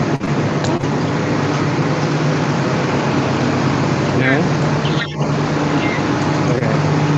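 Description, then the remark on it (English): Steady, dense ambient din of a busy bus station, with a constant low engine rumble and mechanical hum, faint overlapping voices, and a man speaking briefly over the noise. “I knew this would happen. I'm right in the middle of a bus station.”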